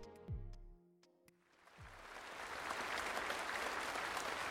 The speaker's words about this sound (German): Xi Jinping bekommt großen Applaus, als das Ergebnis auf einem digitalen Monitor aufleuchtet. Chinas Präsident ist vergangene Woche für eine dritte Amtszeit wiedergewählt worden.